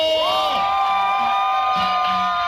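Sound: festival crowd cheering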